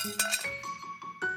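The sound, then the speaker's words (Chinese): A plate of banana cake clatters as it is knocked over by hand, giving a few sharp ceramic clinks that leave a bright ringing tone between the hits, with no voices. “结果恐龙宝宝直接用手将整盘蛋糕弄倒。”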